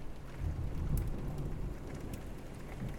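Heavy rain pours steadily while a deep, low thunder rumble rolls continuously underneath, with scattered raindrop spatters on top and no voices.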